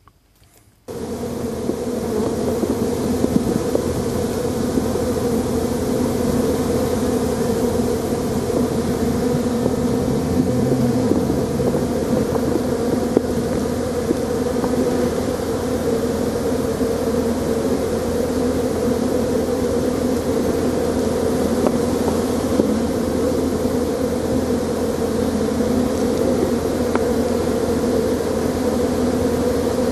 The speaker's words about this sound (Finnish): Ja lopputulos on musta, musta oli ainakin, kun no tuossa tunti sitten kuuntelin, että kehtaako tämmöistä soittaa, mutta kun nyt sai markkinoitu, että on epäonnistunut, niin et tuleeko tästä edes hyttynen lopuksi mieleen? Kuunnellaan.